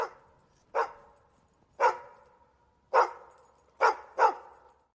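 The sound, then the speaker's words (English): A dog barks five times with sharp, resonant woofs, irregularly spaced, the last two coming close together, with brief decaying echoes between barks and no talking. “All right, uh, let's get dog of the week going.”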